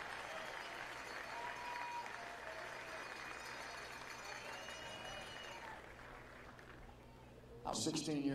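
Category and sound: crowd, audience applause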